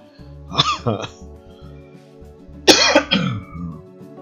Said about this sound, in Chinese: 这个咳嗽呢，我跟着我好久了